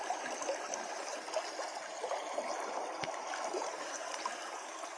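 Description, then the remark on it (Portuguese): A small stream flows steadily, a continuous bright babble and trickle of water with no voices, its texture even throughout. “Desfrute desse córrego.”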